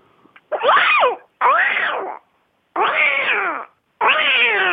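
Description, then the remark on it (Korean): A voice imitates a cat, giving four drawn-out, wavering meows in two pairs, each about three-quarters of a second long, loud with short pauses between them. “그 고양이 소리 한번 내볼게요.”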